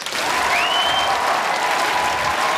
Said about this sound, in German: Wenn immer, wenn immer Sie dann auf dieser CD Applaus vernehmen, dann sollten Sie sich sagen können, boah, das war ich. Unter diesem Motto, Applaus!